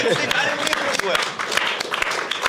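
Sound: applause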